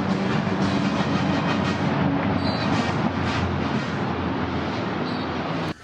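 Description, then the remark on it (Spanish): A loud, dense roar of a squadron of six Mexican Air Force EC725 helicopters flying past at very low altitude over a city centre, their rumbling rotors and whining engines holding steady throughout before cutting off abruptly at the end. “Se aproxima hacia nosotros una escuadrilla de seis helicópteros Eco Charlie 725 de la Fuerza Aérea Mexicana, que son utilizados para realizar operaciones de ambulancia aérea y traslado de vacunas contra COVID-19.”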